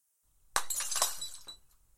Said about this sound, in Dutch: beschut door de overkapping in mijn rug en de bladeren van de struiken boven me, legde ik één uiteinde van de spiegel op mijn schoen, zodat die schuin lag. Ik pakte de hamer en.